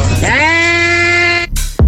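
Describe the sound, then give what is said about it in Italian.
A single drawn-out animal call, like a sheep's bleat or a cow's moo, sounds loud for about a second, followed by a brief noisy rustle or thump. “Era una pecora? Un avvertimento, un avvertimento divertimento. Era una mucca forse, una pecora, una mucca.”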